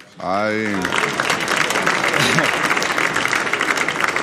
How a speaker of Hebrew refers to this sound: זו קבוצה גדולה, כבר מגיע להם מחיאות כפיים.